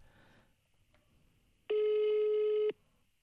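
A single steady telephone ringing tone, a loud harmonic buzz lasting about a second, heard on its own after a quiet stretch with faint low background noise.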